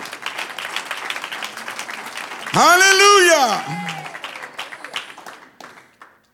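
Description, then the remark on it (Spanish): A crowd applauds the Lord with dense, steady clapping for several seconds while one loud voice shouts out briefly partway through. The clapping then thins and fades away. “Un aplauso al Señor.”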